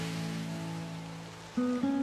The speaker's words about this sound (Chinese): 你听到耳边的流水声，大脑也完全安静下来了。